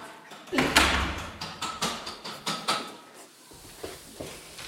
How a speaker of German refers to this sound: Macht er die Tür zu? Ja.